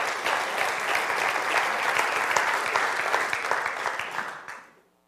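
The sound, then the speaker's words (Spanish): A church audience applauds God during a sermon, a dense wash of many hands clapping at an even, sustained loudness for several seconds before it quickly dies away at the end. “Oh, sí, dale el aplauso a Dios, se lo merece.”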